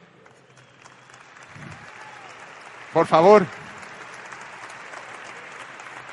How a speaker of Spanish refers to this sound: Por aquí anda un, embajador, un embajador Nutralight. que este, que sí, le voy a pedir un aplauso definitivamente.